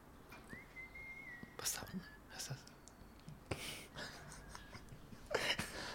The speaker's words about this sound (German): irgendjemand pfeift ein schönes Lied. Das dürfen wir auf keinen Fall rausschneiden. Nein, das bleibt so drin.